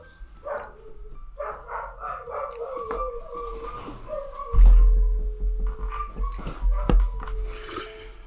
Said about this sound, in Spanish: Ustedes saben cómo son los perros. Pasan la sirena los bomberos y se ponen a ladrar como locos.